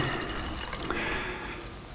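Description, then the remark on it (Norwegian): Water is poured steadily into a glass for about two seconds, a continuous splashing gurgle whose pitch shifts as the glass fills. No one speaks. “Nei, jeg tar, og, jeg tar og skjenker opp litt allikevel, jeg.”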